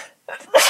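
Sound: sneeze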